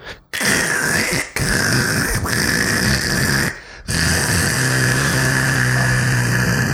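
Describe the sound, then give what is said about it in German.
A voice imitates an old car's irreparably damaged transmission grinding, a loud, rough, rasping drone broken by short pauses as if for breath, continuing steadily. “Na, jedenfalls hat es einen Getriebeschaden. Und es hört sich ungefähr so an, das Auto.”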